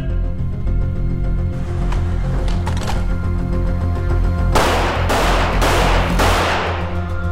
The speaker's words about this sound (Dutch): De volgende oefening vanuit het holster. doel gaat verschijnen en reageren met twee schoten. Twee schoten. Opgelet.